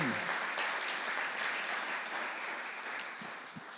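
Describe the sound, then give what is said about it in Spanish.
A large crowd applauds the Lord after a prayer, clapping steadily throughout, a dense sustained wash of applause that fills the space evenly for several seconds without pause, with no clear voices standing out. “¿Qué tal si le da un fuerte aplauso al Señor”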